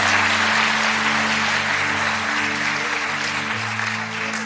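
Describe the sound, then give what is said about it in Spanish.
An audience applauds loudly for the glory of God, a dense, steady wash of clapping that fills the whole clip with no pauses, while a low sustained tone hums underneath. “Ahora sí aplauda duro para la gloria de Dios y para que se despierten alguien ahí.”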